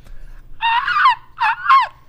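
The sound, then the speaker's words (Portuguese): A person imitates an eagle's cry with two shrill, screechy calls, the first long and wavering, the second shorter, each ending in a falling pitch, loud with no talking. “Essa águia, ela só sai às vezes, peraí.”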